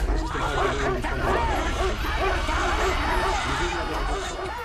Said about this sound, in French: Elle entend des aboiements et des cris en allemand qui sonnent comme les prémices de l'enfer.